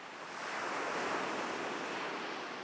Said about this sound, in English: The waves, for instance. The waves are incessant. They talk to each other every day about every which way they're going to find the shore. And then they do it. Every wave in a different pattern to the last, finding shore.